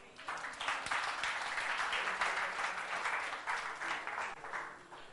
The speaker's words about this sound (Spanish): En un aplauso a Cristo, hermano.